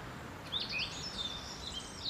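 Recorded birdsong: birds chirping in a steady, overlapping chorus of high, quick tweets and trills, moderately loud over a soft background hiss, with no voices.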